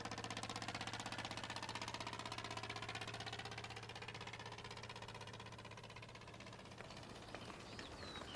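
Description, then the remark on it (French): A tractor engine runs steadily while driving out to meet sheep, a loud continuous rumble with a rapid mechanical chugging throughout, faint bird chirps audible near the end. “Et enfin, nous sommes partis en tracteur à la rencontre des moutons.”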